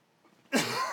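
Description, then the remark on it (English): A person coughs after a brief hush: one harsh, raspy cough that trails into a second short hack at the very end, loud and with no talking; a lingering cough from COVID. “Um, sorry, I, I, got a cough from uh, COVID that won't go away.”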